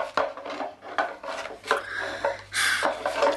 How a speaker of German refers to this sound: Sobald die Frau wieder einmal das Haus verlassen hatte, durchwühlte er die Kisten und Truhen nach Geld.